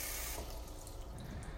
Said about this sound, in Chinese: 同时，现在水已经灌到八分满，关水。